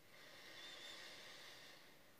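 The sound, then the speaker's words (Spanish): A long, steady airy hiss of breath drawn in through the nose during a guided breathing exercise, quiet, swelling slightly in the middle and lasting about two seconds with no talking. “Inhala otra vez.”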